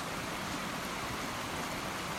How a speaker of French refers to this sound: je vais vous laisser le temps d'écouter le bruit autour de moi parce que ce n'est pas un problème de son mais c'est bien l'eau d'une rivière, l'eau vive qui coule